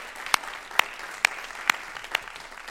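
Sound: audience applauding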